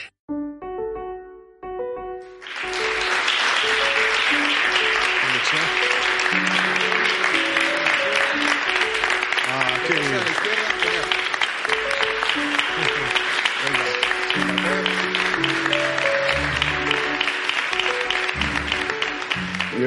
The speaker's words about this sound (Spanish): que es la primera vez en mi vida que me aplauden por sentarme, pero os lo agradezco.